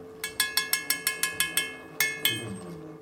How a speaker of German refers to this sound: Vier tibetische Mönche, einer auf jeder Seite des Quadrats, beugen sich darüber. Sie halten eine lange, schmale Metallröhre in der Hand über die sie mit einem zweiten Metallstab in der anderen Hand reiben und klopfen.